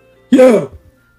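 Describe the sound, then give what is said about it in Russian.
One short, raspy growl from a single voice, demonstrating the growl vocal technique, lasting under half a second, with a gritty, distorted tone. It is fairly loud, followed by a faint trailing breath and then silence. “Да, вот такие, да? Грол.”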